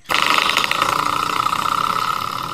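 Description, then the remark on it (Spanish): A door stopper spring at the bottom of a door is flicked once, snapping into a loud, wobbling metallic twang that hums on with a steady buzzy warble for a couple of seconds, fading only slightly, with no voices. “Ya saben que hay un, un resorte en la puerta ahí abajo para que la puerta pues no dañe de repente las paredes con la chapa.”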